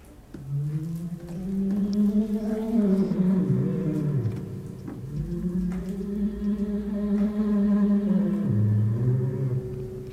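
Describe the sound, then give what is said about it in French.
A loud, buzzy electronic tone, controlled by touching a soft, cold jelly, drones continuously, its pitch sliding down, wavering and rising again in slow bends over about ten seconds, with no voices present. “selon l'endroit où on touche la gelée, voilà, on peut, on peut avoir différentes, euh, différents types de contrôles sur le, sur le son.”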